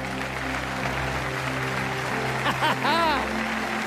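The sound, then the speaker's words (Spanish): A crowd applauds God as the King of Kings in a dense, continuous wash of clapping, with a few voices shouting and cheering over it near the end. “Dale un aplauso grande al Rey de Reyes.”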